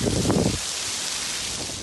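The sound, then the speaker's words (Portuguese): Heavy rain from a huge storm in Florida pours down in a steady, dense hiss, coming like buckets of water against a window, with gusting wind shaking palm trees behind; a louder, rougher rush of wind opens the moment before settling into the constant downpour. “Tem momentos que vem uma chuva, uma tempestade gigante, balança todas essas palmeiras atrás e, e vem como se fosse baldes de água aqui na nossa janela.”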